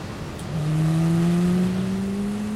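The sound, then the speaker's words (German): A loud Formula 1 car engine, a Jordan team car on a test drive at Silverstone, England, in 1991, revs up and holds a high, steadily rising whine for a couple of seconds with no voices, on a summer day with cold, stormy wind. “Eddie lädt Michael dann zu einer Testfahrt nach England ein, um zu checken, ob dieser Mann überhaupt mit einem Formel-1-Auto umgehen kann”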